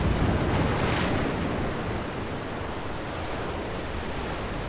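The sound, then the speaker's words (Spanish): Ocean waves break on a shore, with a fuller surge near the start easing into a steady, hissing wash of surf and some wind rumble. No one speaks. “Mensaje de mar.”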